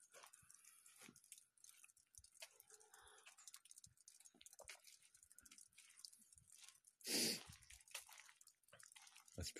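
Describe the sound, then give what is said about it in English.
Irregular drips and soft trickles of water from melting snow patter, scattered unevenly with a few wet squishy taps, and one louder splashy burst partway through; no voices. “The sound of snow melting.”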